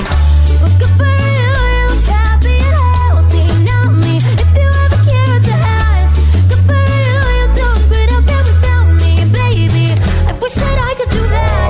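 A pop song cover plays loud and full, a sung melody riding over a steady repeating bass line and driving beat without a break.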